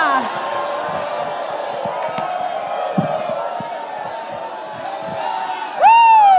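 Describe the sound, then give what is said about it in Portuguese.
A large audience shouts and cheers in a sustained, loud roar of many voices, with scattered whoops rising above it and a sharp, bright rising yell near the end. “The word is enough for A me to shout. A palavra é suficiente para eu gritar. Somebody Alguém grite a vitória!”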